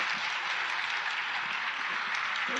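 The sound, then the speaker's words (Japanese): Steady audience applause for the lecturer at the end of a literature class lecture, a dense wash of many hands clapping at an even level throughout, with no voices heard over it. “それからあの先生はまだあのお体が完全でないところを押して出ていただきまして本当にどうもありがとうございました拍手をお願いいたします”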